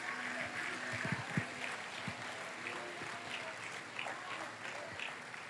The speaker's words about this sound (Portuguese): Levante a sua mão e aplauda Jesus, meus irmãos.